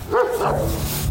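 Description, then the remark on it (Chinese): A vicious dog about to pounce barks aggressively, one or two loud, harsh barks at the start, followed by a low rumbling that continues to the end. No one speaks. “哇哦，这条恶犬已经要朝我扑过来了。”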